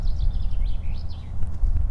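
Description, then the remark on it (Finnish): Roosters squabbling in a yard corner, an old rooster named Viljami defending its territory against a newcomer: a run of thin, wavering squawks over a steady low rumble, tapering off after about a second, leaving only scattered faint clicks. “Noin kukot vissiin vähän Joo. selvittelee välejä.”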